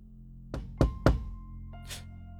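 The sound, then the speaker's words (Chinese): Three firm knocks on a door in quick, even succession, each a solid low thud, followed by a brief softer rustling sound over a faint steady hum. No one speaks. “有人在敲门。”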